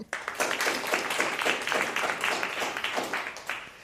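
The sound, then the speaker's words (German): An audience applauds steadily to welcome a guest, a dense wash of many hands clapping, holding fairly even in loudness before starting to thin toward the end. “aber erst nach dem Applaus, den es gleich geben wird, was denn Solidarität eigentlich genau ist.”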